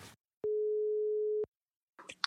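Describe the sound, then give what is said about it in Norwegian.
A single steady telephone ringback tone sounds for about a second while placing a call, clean, then cuts off into silence before a voice briefly begins at the very end. “Åh, oh, vi ringer.”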